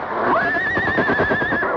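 horse whinnying

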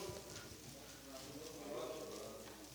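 bible pages being turned

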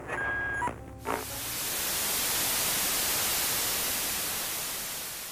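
white noise

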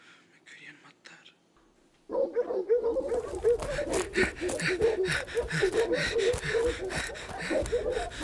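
large dogs barking

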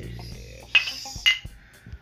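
glasses clinking

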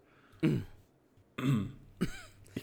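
coughing and throat clearing

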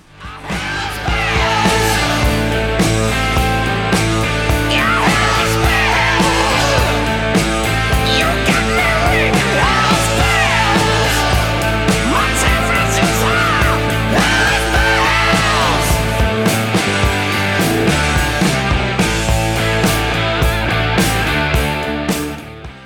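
hard rock song playing

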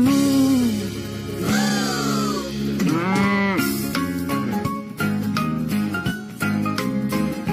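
cow mooing

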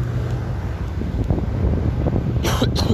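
cough

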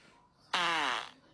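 fart

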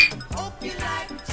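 glasses clinking

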